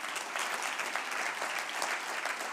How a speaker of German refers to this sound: Ja, komm, lass uns ihnen auch mal einen Applaus geben, ja.